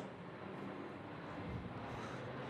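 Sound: airplane flying overhead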